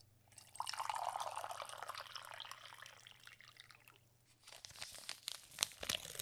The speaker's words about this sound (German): jetzt gibt's das Teegeräusch. Könnt ihr mal gucken, ob's heißes oder kaltes Wasser ist. Genau, wenn ihr letzte Woche verkackt habt, könnt ihr es diese Woche nochmal neu testen. Ob ihr es denn jetzt erkennt.